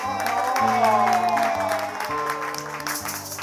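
Audience applause, a dense, steady wash of clapping that carries on for the whole few seconds, mixed with music playing sustained bass notes and a melody underneath.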